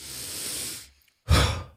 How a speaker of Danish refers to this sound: den her, og træk ind med næsen ud med munden. Man bliver nærmest svimmel, når man gør det, fordi man pludselig får så meget ild i knollen.